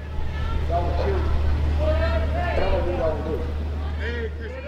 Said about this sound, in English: As I walk into CHOP, a small group of protesters walks out, chanting Black Lives Matter. They are heading down Pine towards downtown.